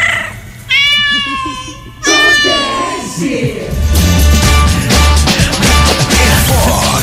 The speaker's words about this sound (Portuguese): Agarra os gatos miando!